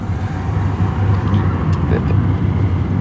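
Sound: car driving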